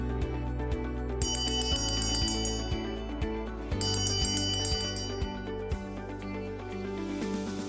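An election bell rings repeatedly in a steady rhythm, marking the start and end of municipal election day, heard every four years. Its bright metallic strikes are layered with lingering, overlapping tones that fill the whole clip without any talking.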